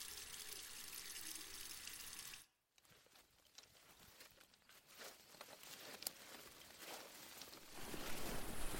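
A tap in a house in the suburbs runs with a steady, hissing splash as someone gets some water, stops briefly, then flows again and grows louder and fuller toward the end; no one speaks.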